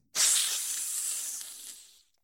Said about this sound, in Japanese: ヘビのシーはヒス。